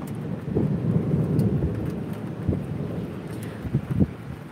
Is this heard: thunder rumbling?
yes